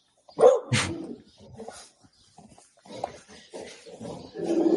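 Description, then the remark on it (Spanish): A dog gives one loud bark near the start, followed by quieter scattered grunts and whimpering noises that swell again toward the end. “Pero bueno, si el perro me deja y lo podemos escuchar, pues lo veremos, porque tiene el perro al lado.”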